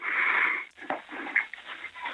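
dog whining

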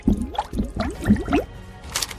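blowing bubbles under water

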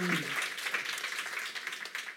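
audience applause

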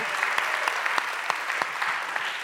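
audience applause

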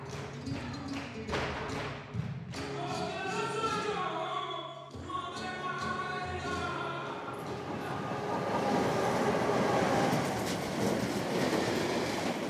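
train riding on rails

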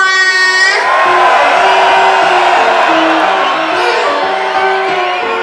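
crowd cheering loudly

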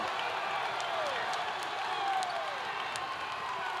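basketball crowd cheering

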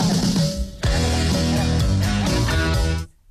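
rock song playing

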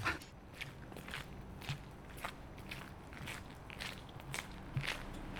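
footsteps walking

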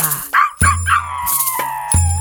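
dog barking

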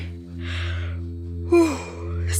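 yawn

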